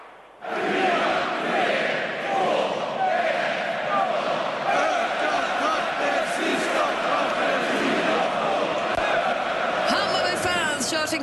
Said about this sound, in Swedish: Klassisk och ärligt talat något märkliga ramsa ökar takten sista kvarten. Tidaholm, som då enligt traditionen sjungs med en kvart kvar av matchen.